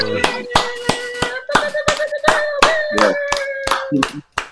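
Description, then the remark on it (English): Steady, rhythmic clapping welcoming two rappers onto the Boom Bap Chat, about a dozen sharp claps at an even pace, with a sustained voice-like tone humming underneath and a brief pause before one last clap. “Real clap.”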